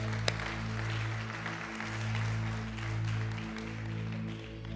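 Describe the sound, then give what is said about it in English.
A crowd at a church service claps steadily and densely for several seconds after a prayer, a continuous wash of hand claps over low, sustained musical tones that swell and fade underneath. “Yeah, we can clap it up.”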